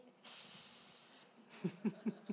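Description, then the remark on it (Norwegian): A person makes a long, loud hissing sound lasting about a second, imitating a snake outside the cave of a square character while telling a children's book story, followed by a few short voiced syllables or chuckles. “For det er én ting firkant er veldig redd for, og det er slanger. Og han har bestemt seg for å stå utafor hula til firkant og si”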